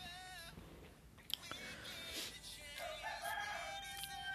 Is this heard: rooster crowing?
yes